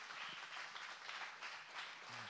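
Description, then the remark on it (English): A church audience applauds steadily for its senior pastors, Josh and Katie, a dense wash of many hands clapping at once with no breaks, holding an even loudness throughout. “Could you just clap for them?”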